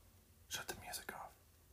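A quick, breathy whisper of a few syllables, soft and close to the microphone, with near silence before and after.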